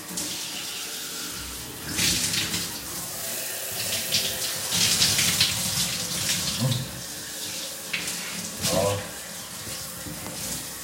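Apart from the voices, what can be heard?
shower water running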